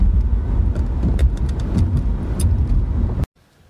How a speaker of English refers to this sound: Honda Odyssey.